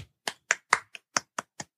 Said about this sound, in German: Verhaltener Applaus, damit das nicht so äh, Rückkopplung gibt im Mikrofon.